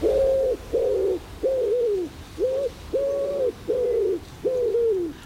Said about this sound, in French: Et je vous laisse avec ma Madeleine de Proust sonore. J'ai nommé le pigeon ramier.